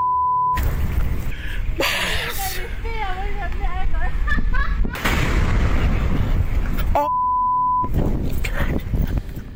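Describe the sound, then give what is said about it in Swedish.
Loud, deep booming blasts from the erupting Hunga Tonga volcano in Tonga roll into a continuous roaring rumble, with brief muffled voices in the middle and short electronic beep tones before and after. “Däremot, den sortens vulkanisk aktivitet som utspelar sig där som plattorna kolliderar, som i Tonga, den är däremot mycket mer besvärlig och både syns och hörs och känns mycket mer.”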